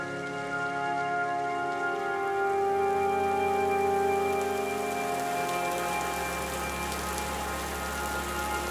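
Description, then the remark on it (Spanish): Gentle rain patters steadily, then thickens into a denser, fuller downpour over the last few seconds, with a faint sustained tonal hum running underneath and no voices. “Primero es una lluvia suave. Poco a poco puedes ver cómo la intensidad aumenta.”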